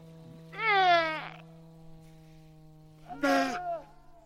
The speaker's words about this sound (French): permet de faire un voyage sonore en scannant un simple QR code, on lit et on écoute les sons dont il nous parle, comme ces loups ou ces phoques